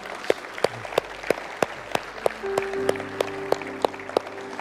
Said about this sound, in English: Amen. Come on, can we give God a round of applause today?